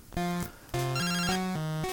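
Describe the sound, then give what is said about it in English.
A phone rings for an incoming call with a bright melodic ringtone: a short tone, a brief pause, then a longer run of stepped electronic notes, clear with no one speaking. “Ah, uh, a phone call from Mum, Speak of the Devil.”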